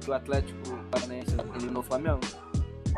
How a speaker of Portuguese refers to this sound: Ah, tem um cachorro latindo aqui.